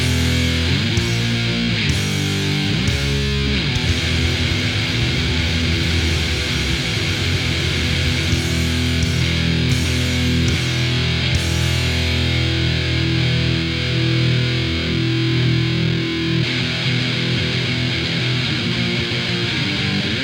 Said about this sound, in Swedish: Men vi kör en lika hård låt till Per då.